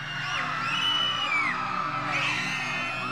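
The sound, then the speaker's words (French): A chaotic din of many voices screaming and yelling at once after a building collapses, overlapping and continuous, loud throughout the few seconds with no pause. “Puis, pendant un bref instant, le silence total, suivi d'une cacophonie de cris.”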